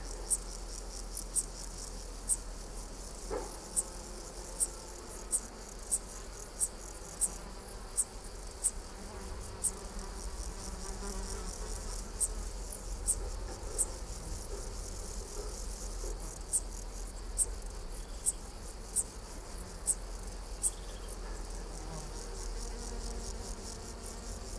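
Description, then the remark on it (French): A Eupholidioptera chabrieri bush-cricket stridulates in short, sharp high-pitched clicks repeated at a steady, fairly regular pace over a faint continuous insect buzz and low background rumble, beside a path near a small pond carpeted with flowering peppermint, with no voices. “Observation sonore - La Decticelle splendide”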